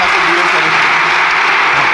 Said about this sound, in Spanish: Aplauso sonoro y cerrado de las filas socialistas.